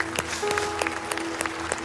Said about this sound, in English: Amen. Can we give God a round of applause this morning for what he's done?